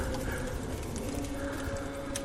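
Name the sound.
horse hooves clip-clopping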